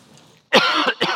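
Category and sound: human body sound, cough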